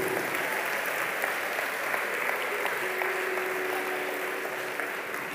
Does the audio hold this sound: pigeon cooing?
no